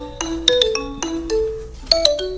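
The telephone of Faustino Hernán's representative rings with a melodic electronic ringtone: a quick series of bright, chiming notes in a bouncing rhythm, clear, with no one talking over it.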